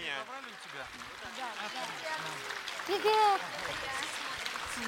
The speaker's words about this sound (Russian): Под ваши аплодисменты сейчас так красиво все это будет звучать. Крокус. Стоим. Вот, вот, вот, выходят наши артисты.